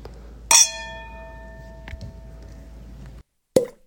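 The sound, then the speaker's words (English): Wine glasses clink together in a toast, one bright strike whose clear ringing tone lingers and slowly fades, followed by a faint tap and then another short knock. No one speaks. “Cheers.”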